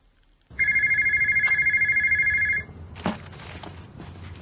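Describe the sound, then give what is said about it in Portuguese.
A telephone in a small office rings with a steady electronic trill for about two seconds, loud, then stops; a brief clatter follows, like the handset being picked up, over a quiet background. “No pequeno escritório, o telefone toca de novo.”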